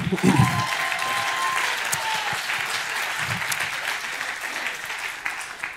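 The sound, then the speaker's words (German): An audience claps steadily, a dense wash of applause that holds for several seconds, with a brief whistle-like tone and a few voices near the start. “Applaus.”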